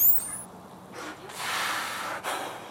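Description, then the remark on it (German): A dolphin breathing through its blowhole on top of its head: a soft opening puff, then a longer, loud whooshing exhalation, and a short second burst at the end. A brief high whistle sounds at the start. “Und wir sehen immer wieder, wie sie atmet. Und zwar das Atemloch ist oben hier und nicht im Mund.”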